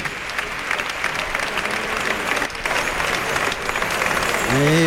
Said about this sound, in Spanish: Bueno, pues mira qué lástima que le están dando una ovación después de varios fallos con el verduguillo.